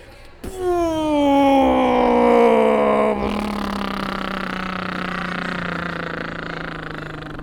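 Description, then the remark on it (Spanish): A voice imitates straining on the toilet because of a stomach ache, with one long, loud, strained groan that starts high, slides lower, and holds a steady, rough drone for about seven seconds. “pero fue de que yo estoy, yo, yo estoy bien malo, me duele el estómago, me siento en el inodoro y pujo y hace.”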